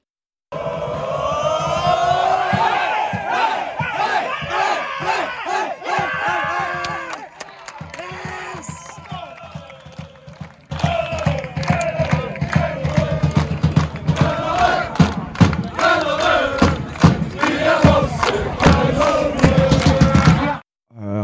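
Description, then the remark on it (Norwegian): Loud, steady drum pounding by a drummer at Kvikkampen drives along beneath a roaring, chanting crowd, with a brief dip in the middle before the drumming and cheering surge back at full strength. “han trommisen der det som vi hører dunker Han leverte.”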